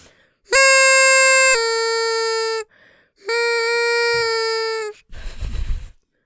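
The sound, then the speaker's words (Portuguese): A toy cornet gives two long, loud, buzzy blasts, each nudging up slightly in pitch partway through, followed by a brief burst of breathy noise. “Tenho flautas, tenho harmónicas, tenho a minha corneta amiga.”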